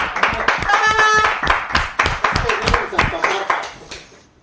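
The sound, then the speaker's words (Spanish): A burst of applause, with many sharp, uneven hand claps over a few seconds, mixed with overlapping voices and excited talk, before it tapers off toward the end. “¡Hay aplausos!”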